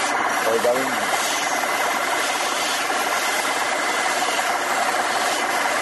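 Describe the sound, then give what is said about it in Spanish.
A steady, dense mechanical grinding hiss runs throughout as a motor-driven lens edging machine with diamond stones grinds and bevels an eyeglass lens with water, with a continuous whir and faint rubbing texture; a brief voice-like murmur appears near the start. “Unas piedras de diamante porque aquí se trabaja artesanal si, si, eh, si la, si la radio se pudiera ver, verían las chispas de, del, del vidrio cuando, cuando lo frotan el agua.”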